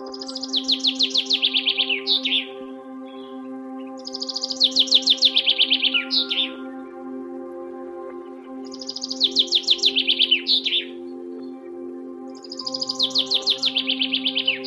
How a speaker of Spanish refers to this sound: Escucha atentamente el canto de los pájaros.